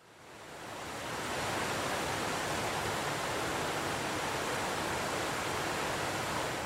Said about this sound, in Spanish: Hoy en Confama Radio, entre nuestros temas, tendremos un río muy importante de Antioquia. Por eso queremos comenzar con este sonido hermoso que siempre nos recuerda la vida.